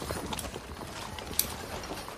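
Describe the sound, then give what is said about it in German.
Horse hooves clip-clop in a steady, uneven rhythm, with one sharper click partway through, over a quiet background and no talking. “Äh, so, das wären einmal die drei Pferde, die ich auftreiben könnte.”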